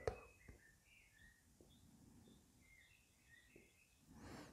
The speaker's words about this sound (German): Du siehst, du hörst nicht mehr getrennte Dinge, weil ein Vogel zwitschert, der Vogel singt aber schön, sondern der Klang des Vogels findet in deinem Geist statt.